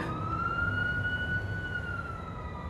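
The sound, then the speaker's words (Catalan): A police car siren wails in the street in a long, slow sustained tone over a steady low street rumble, holding constant volume throughout. “Sento un cotxe de policia al carrer.”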